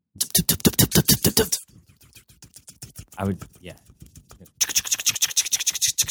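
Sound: voice imitating a helicopter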